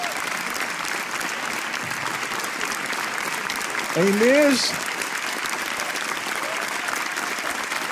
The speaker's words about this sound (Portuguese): Meus amigos, uma salva de palmas para os meus novos amigos,